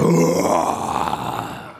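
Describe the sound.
A man lets out a loud, growling roar in imitation of a lion as his battle cry, called the Residenzler Löwe, a single sustained guttural cry that starts strong and slowly fades over about two seconds.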